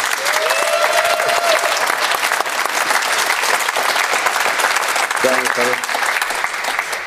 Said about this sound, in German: Conny Leimer ist äh, in Leipzig und wir begrüßen ihn ein, mit einem herzlichen Applaus, würde ich sagen, hier aus München.